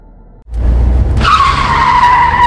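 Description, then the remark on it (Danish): Car tires skid loudly over a low engine rumble, breaking into a sustained high-pitched squeal that holds steady for over a second as the vehicle veers aside. “Ups, trækker din bil til siden?”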